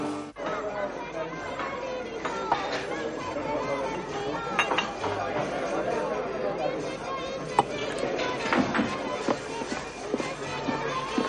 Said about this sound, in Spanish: día siguiente Luisa está en un bar tomando café. Junto a ella unos hombres vestidos de Reyes Magos terminan el suyo y salen.